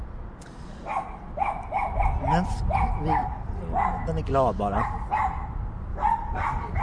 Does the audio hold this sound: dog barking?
yes